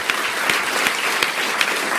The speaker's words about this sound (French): C'est les fromages de classe mondiale. C'est ce que vous faites, puis vous pouvez vous applaudir.